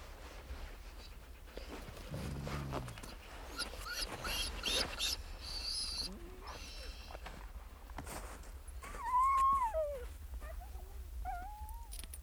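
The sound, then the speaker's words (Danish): Sled dogs lying on the ice growl briefly, then whine in high, wavering cries that rise and fall, against a quiet outdoor background, with no one speaking. “den store stillhed farer en af hundene ind imellem knurrene op, eller ligger og ser pipen af længsel efter deres herre.”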